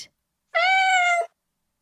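A single clear cat meow, drawn out for under a second with a steady, slightly falling pitch, loud, surrounded by silence.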